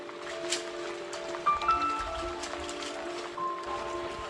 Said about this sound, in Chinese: 这个老天又在下雨，搞得这个厂子晒晒不干